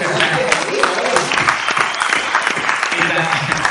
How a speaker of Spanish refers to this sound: Un aplauso para el presidente de Trujillo.